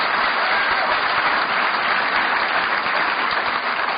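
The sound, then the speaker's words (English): Steady, sustained applause from a crowd at an AA conference, a dense wash of clapping that stays loud and even for the whole stretch with no voices rising above it. “And give them a bit of applause because, hey, they're, from, they're yours.”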